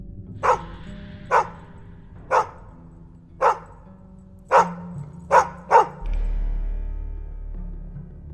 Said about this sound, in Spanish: El intranquilo Artyom oyó los ladridos de unos perros en la lejanía.